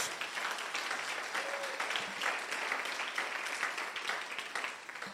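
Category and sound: crowd, loud applause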